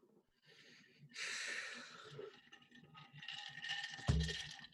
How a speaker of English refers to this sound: Oh, people are going to be yelling at us about your ice and your Yeti, by the way. Thanks for that.